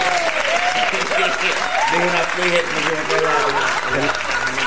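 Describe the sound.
Steady applause from a group for a participant who got the pronunciation right, dense clapping filling the whole few seconds at an even loudness, with voices talking and calling out over it.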